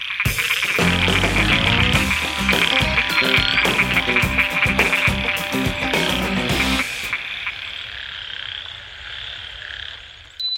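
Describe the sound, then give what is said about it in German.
A loud, dense chorus of frogs croaking together, overlapping rhythmic calls filling the air for about seven seconds before dropping to a quieter, thinner chorus. “Welches Tier suchen wir? Ich sag es dir. Es ist der Frosch.”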